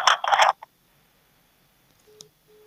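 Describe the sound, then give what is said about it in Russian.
A couple of short, quiet electronic DTMF phone tones, number buttons being pressed to call a city Duma deputy's office, come after a brief burst of rustling handling noise, with a soft click between them and no talking. “Так, звоним.”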